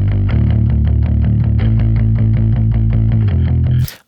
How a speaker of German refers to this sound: Wir können das ja mal ein bisschen übertreiben. Wir heben mal 6 dB an. Ich mache mal hier, stelle mal 6 dB an und äh, mache das mal erst aus und dann wieder an. Hör mal. Und an.